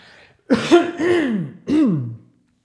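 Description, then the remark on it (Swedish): A loud bout of coughing and throat clearing: a harsh rasping burst followed by a second, then a short break and one more guttural clearing, with no talking. “Jag ska bara hosta lite här.”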